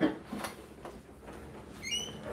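A door opens in a quiet room, with soft clicks and shuffling, then a brief high squeak near the end like a hinge or latch. No one speaks.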